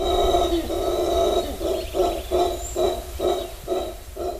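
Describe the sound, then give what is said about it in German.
Black howler monkeys roar around the village of Bermuda Landing in a deep, rasping chorus: a long drawn-out growl, then a rhythmic series of short, pulsing grunts repeating about twice a second, loud and with no talking over them. “Rund um das Dorf Bermuda Landing ist das krächzende Gröhlen der schwarzen Brüllaffen nicht zu überhören.”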